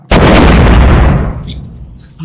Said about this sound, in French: vous entendez là une détonation de, du feu de Dieu. Vous entendez le sol, qui, la montagne qui commence à.